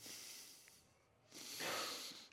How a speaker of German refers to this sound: Ich Schnaufen mal einen Moment durch.